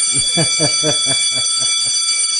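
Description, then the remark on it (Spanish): A small bell rings rapidly and continuously, a bright, high-pitched metallic jangle with a quick repeating pulse that gradually softens toward the end. “suena, suena la campanita.”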